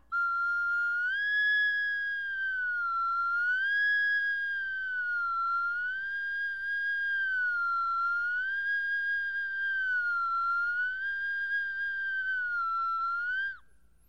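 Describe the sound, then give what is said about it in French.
A steady, piercing whistle from a flute mouthpiece alone, a finger put into it and taken out, held for about thirteen seconds while its pitch slowly wavers up and down, loud with no voices. “Ah oui, si j'essayais de faire juste avec le bec de ma flûte en mettant mon doigt dedans et en l'enlevant comme ça.”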